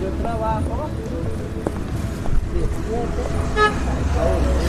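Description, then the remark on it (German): A busy city street in Bogotá, recorded with a stereo microphone, with steady traffic rumble, occasional car horns tooting, and clip-clopping hooves passing, with indistinct voices in the background. “also eine Straßenszene in Bogota Und die wurde dann äh, in der Produktion darunter gelegt, um halt eben auch diese akustische Ebene dieses Ortes ähm, ja abzubilden.”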